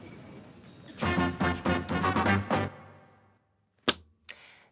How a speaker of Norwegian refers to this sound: Det, kjære lytter, det var lyden av en bibel som ble lagt på bordet framfor meg. Og bibelen den ligger foran meg eh, fordi jeg skal lese to korte bibelvers til dere.